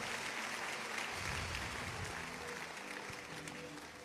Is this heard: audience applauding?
yes